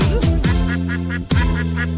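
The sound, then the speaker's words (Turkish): Over a bouncy Turkish children's song about the ducks on Ali Baba's farm, a voice sings a series of short, rhythmic imitated duck quacks in quick repeated bursts, clear against the steady music. “Ali Baba'nın bir çiftliği var Çiftliğinde ördekleri var”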